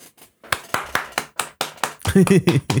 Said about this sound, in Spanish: Aplauso.